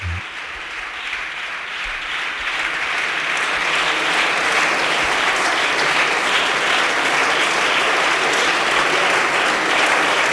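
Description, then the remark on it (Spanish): Sustained applause fills the chamber of Spain's Congress of Deputies during the government control session, a dense steady clatter of many hands that swells slightly and holds loud for the full stretch, with no one speaking over it. “Bueno, continúan los aplausos en la sesión de control al Gobierno, en el Congreso de los Diputados.”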